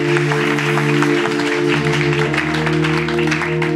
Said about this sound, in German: Ja, lass uns hier noch einen Applaus geben